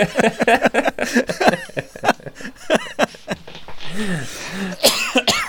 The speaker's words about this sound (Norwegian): Oi, en liten hoste der.